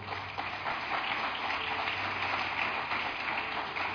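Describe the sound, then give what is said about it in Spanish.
A crowd applauds a guest's husband and child in the audience, a dense, continuous patter of many hands clapping at an even level for the whole stretch, with no voices standing out. “Un fuerte aplauso, hermano.”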